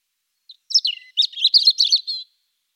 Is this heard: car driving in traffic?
no